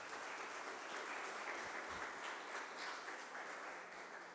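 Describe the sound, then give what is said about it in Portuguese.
A crowd applauds God at a preacher's call during a sermon, a dense, continuous wash of many hands clapping at once, sustained and fairly loud throughout without pauses or voices standing out. “Aplauda Ele, queridos.”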